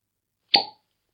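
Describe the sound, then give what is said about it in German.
A single champagne cork pops loudly, a sharp plop with a brief hollow ring that fades within a fraction of a second, surrounded by silence. “weil ich habe hier noch ein paar Flaschen Champagner mit reingepackt.”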